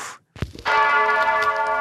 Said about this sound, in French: Comme premier jingle, les cloches de l'église Notre-Dame du Vœu à Cherbourg qui sonne pour la première fois depuis 4 ans.